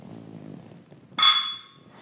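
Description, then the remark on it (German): A single sharp, loud clink of two bottles of Pilsner Urquell beer knocked together in a toast, with a bright ringing tone that fades over about half a second after a quiet, low rumble. “So, ich greife auch mal nach. lass mal direkt anstoßen hier.”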